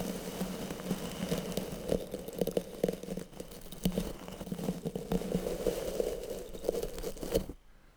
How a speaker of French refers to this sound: frottement dans les cheveux.